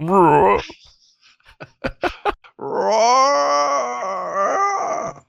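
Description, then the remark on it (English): A man's voice tries a drawn-out growling roar, loud, after a brief rising vocal burst and a few sharp clicks. The imitation sounds strained rather than truly deep. “I, I just don't have the guttural voice.”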